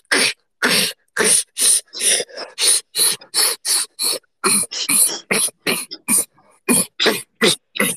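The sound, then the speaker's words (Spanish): A voice repeatedly attempts a beatbox inward K snare, sharp, hissy sounds made by sucking an S inward with a K, about twenty short bursts in quick succession, loud, with brief gaps between each attempt. “Y después la caja, que es lo más complicado, es como si hicieras la S, la palabra S, una, S, una S, pero para adentro. Y de esa S le metéis ah, una K, una K”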